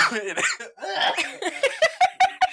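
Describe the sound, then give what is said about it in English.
A run of short, sharp coughs into the microphone, coming in a quick uneven series after a moment of breathy, voiced laughter-like sounds. “this whole podcast is going to be of us coughing, coughing, into the mic.”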